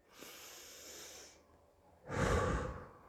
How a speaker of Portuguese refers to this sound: Eu quero que você faça uma respiração bem profunda agora e solte o ar soprando.